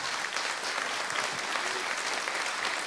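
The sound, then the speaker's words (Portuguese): An audience applauds to the Lord for the lives of four people standing before them, steadily for the full three seconds, a dense, even wash of many hands clapping with no pauses and no voices standing out. “Vamos aplaudir ao Senhor pela vida deles.”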